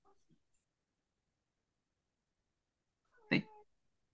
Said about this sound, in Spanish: No, nada, que mi gata me estaba reclamando que quería